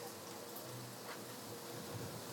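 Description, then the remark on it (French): Steady rain falling, a soft, continuous hiss of drops spread evenly across the whole moment, fairly quiet, with no voices or other sounds. “De la pluie, ça lave rien.”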